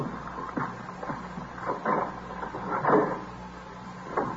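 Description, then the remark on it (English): A coat closet door in an apartment creaks open, with a series of wooden squeaks and soft knocks spread over a few seconds and no voices. “She finished the apartment, and then she thought she'd check the coat closet right here.”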